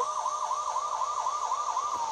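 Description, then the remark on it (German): An emergency vehicle siren in a video game wails in a fast, steady warble, rising and falling about four times a second, loud and continuous throughout with no voices over it. “Sirene.”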